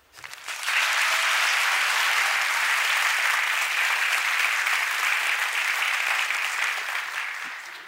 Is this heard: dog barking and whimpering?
no